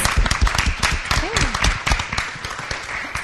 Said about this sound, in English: So I want to give her a round of applause too for all her hard work and efforts.